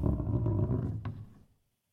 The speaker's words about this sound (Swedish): Varför lät det som att det rullade typ ett klot över hela golvet precis? Jag vet. Och det är ingen här, det är bara du och jag här. Och det lät inte utifrån för det låter i mikrofonerna.